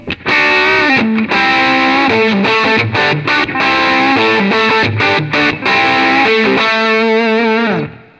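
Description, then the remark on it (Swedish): A heavily distorted electric guitar, its volume turned up to ten, plays a sustained riff at loud, saturated volume, with thick harmonic chords, brief choppy gaps, and a final ringing note that fades at the end. No voices. “Men jag drar upp den på tian här.”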